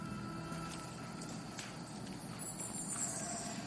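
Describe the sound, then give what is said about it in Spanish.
Steady, fairly quiet jungle ambience heard from atop a Maya pyramid, with birds calling high above a dense rustling bed and monkey cries drifting in and out. No one speaks. “El sonido de los monos y todas las aves recorriendo la selva Estoy sobre una pirámide construida por personas que tal vez oyeron estos mismos sonidos.”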